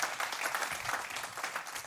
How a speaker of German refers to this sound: Und ich die ganz herzlich mit einem Applaus auf der Bühne begrüßen.